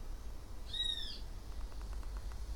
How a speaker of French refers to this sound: Et vous entendez peut-être le son de votre environnement proche, et peut-être que vous entendez le son de mon environnement proche. Comme des oiseaux, euh, des espèces de de criquet peut-être. Un peu plus au loin.